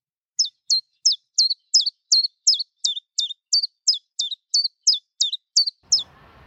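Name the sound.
chiffchaff singing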